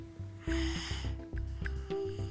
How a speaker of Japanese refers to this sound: 今僕ポッドキャストベッドの上で撮ってるんですけど寝てます隣で2人とも聞こえますかこの寝息